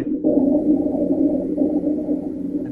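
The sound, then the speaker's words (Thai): A continuous low, rumbling wheeze with a snoring, gurgling texture, rhonchi lung sounds recorded through a stethoscope, plays alone, steady and fairly loud for nearly three seconds with slight swells in intensity. “อันนี้เสียงลองคายอีกยี่ห้อนะลองฟัง”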